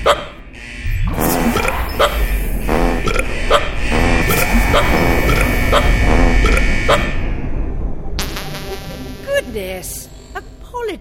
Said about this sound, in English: System overload. All human gas emissions must stop. I, I can't, can't, stop. stop.